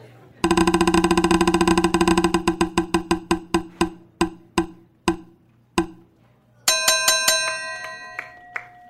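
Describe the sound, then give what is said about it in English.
A prize wheel of discussion topics is spun, with a rapid run of sharp clicks that steadily slow and spread out until it stops on "New York City is falling apart", followed by a bright ringing chime struck several times. “Let's spin the wheel.”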